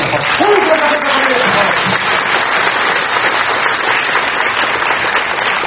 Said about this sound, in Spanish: Porque tengo el mejor equipo. Y pido un fuerte aplauso para el equipo que me acompaña.